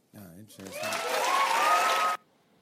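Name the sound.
studio audience applauding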